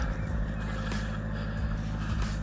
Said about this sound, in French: Il y a des voitures ici alors qu'on est sur un lieu de balade. Parce qu'il y a un camp qui s'est installé juste à côté. Euh, Oli, pas bouger. Donc j'immobilise le chien le temps que les voitures passent.